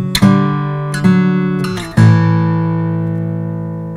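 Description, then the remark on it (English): A short guitar phrase from the British ballad tune Bitter Withy, played legato in a linear fashion: a few plucked notes joined by hammer-ons and a slide, ending on a sustained note that rings out and slowly decays, with no talking. “So there's a hammer on, slide, another hammer on, another hammer on”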